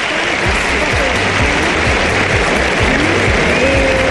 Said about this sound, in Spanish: Los aplausos son para un hombre que se va lesionado del partido.